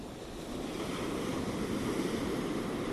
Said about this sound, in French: Et comme tu peux l'entendre, les vagues sont tout autour de moi, depuis l'Inde au Kerala.